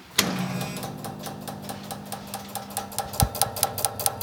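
A loud mechanical clack as a large power supply in an equipment cabinet is switched on by its heavy switch, followed by a steady hum and a rapid series of sharp clicking relays that grow denser toward the end, distinct with no voices.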